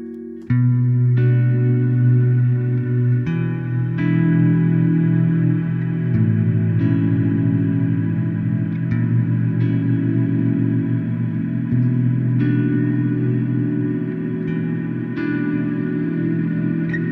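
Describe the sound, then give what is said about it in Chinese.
Sustained reverb effect from the 'sustain' setting of a reverb effects unit: notes swell into a long, continuous wash of harmonic tones, with new chords or notes sounding every few seconds over a steady, unbroken drone. No talking. “呃，在我的这块效果器上面呢，它叫做 sustain。我们来听听看 sustain 是什么样的声音。”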